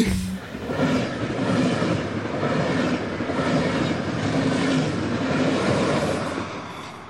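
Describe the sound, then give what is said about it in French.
An RER commuter train rumbles steadily from inside the carriage, with a continuous low roar and faint rhythmic clatter of wheels on track, fairly loud, no voices. “Le RER, e justement, j'ai l'impression que c'est le transport du voyageur heureux.”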